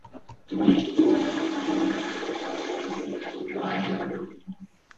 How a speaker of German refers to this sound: ja äh, die, die, das heißt eigentlich äh, Toilette, Flachspüler kurz. Ja, das passt auch besser als Glow-Spülung. So ist äh, der authentischere Name für dieses Geräusch.